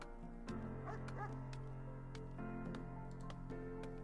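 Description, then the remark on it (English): A video game dog eating a body yips and makes short whimpering, bow-wow sounds over a steady low drone, with a few sharp clicks scattered through the four seconds. No one speaks. “Is this dog? The dog's eating the body.”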